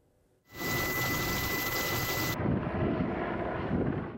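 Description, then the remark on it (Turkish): A loud aircraft engine roars in abruptly and drones steadily, with a piercing high whine during the first couple of seconds before settling into a rumbling, continuous flyover, as firefighting helicopters and planes respond to a morning forest fire in the Kaz Dağları national park. No talking. “Ve söndürme ekipleri, helikopterler, uçaklar peşi sıra müdahale etti.”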